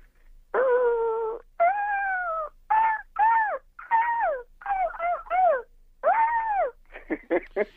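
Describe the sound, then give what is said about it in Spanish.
A man imitates an ostrich call in a contest, with a string of loud, wailing yelps, longer drawn-out cries first, then quicker choppy ones at the end, with no other sound around them. “¿Te dije imita avestruz o te dije imita perro atropellado?”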